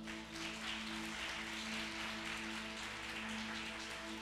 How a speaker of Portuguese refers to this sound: Você pode aplaudir Jesus porque Ele é bom?